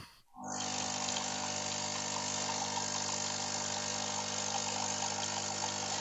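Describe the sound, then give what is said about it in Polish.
An espresso machine pours coffee with a steady pump hum and gurgling flow that starts after a brief quiet moment and continues evenly without any talking. “Zaraz pokażę jedną rzecz, bo tak y, słychać jak on nalewa kawę, ale trochę inaczej słychać jak nalewasz samą wodę.”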